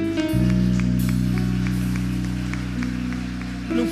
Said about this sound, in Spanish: Cuando le dan un fuerte aplauso a la presencia del Todopoderoso.